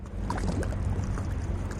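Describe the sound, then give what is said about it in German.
Steady, gentle water movement with a soft, continuous low rumble and faint splashy textures throughout, without speech; calm water of the Main river lapping quietly along the bank at Mülheim in the Landkreis Offenbach, Hesse, Germany. “Das Wasser plätschert ruhig vor sich hin.”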